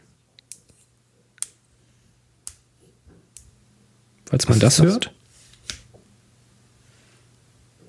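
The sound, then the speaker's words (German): Several sharp finger-knuckle cracks pop at irregular intervals, each a brief dry click, with a short burst of someone talking partway through. “Das waren die Fingerknöchel.”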